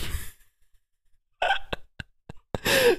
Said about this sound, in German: Also für ZuhörerInnen, wir haben das System, wo wir einen Marker setzen, wenn wir was rausschneiden. Also immer, wenn ihr so eine Taste klicken hört, weil wir es auch nicht hinkriegen, die hier aus dem Audiostream rauszunehmen, die Tastengeräusche.